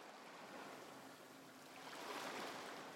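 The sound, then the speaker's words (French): Huge sea waves crash violently against rocks below a very high cliff, with a steady, hissing roar of churning water that swells into a louder surge toward the end. No voices are heard. “Il contemple tristement les énormes vagues en contrebas qui se fracassent violemment sur les rochers.”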